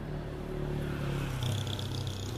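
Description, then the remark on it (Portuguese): Steady low rumble of street traffic, with a car engine swelling briefly as it passes midway through, over continuous background road noise. No one speaks. “Eu te levo o professor ouvir os carros atrás.”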